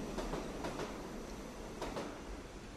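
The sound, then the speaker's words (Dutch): A train rumbles steadily along the tracks through Germany at night, a constant low roar with faint rhythmic clicks of wheels passing rail joints, with no voices. “trein dendert door het nachtelijke Duitsland, steeds verder van huis.”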